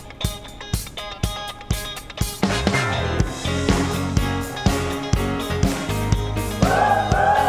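An upbeat soul choir of some 40 singers from Argentina sings a cover version over a steady, driving beat, with full harmonies and punchy rhythmic accents, loud, with no one talking.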